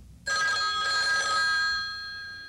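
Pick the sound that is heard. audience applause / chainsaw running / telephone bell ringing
telephone bell ringing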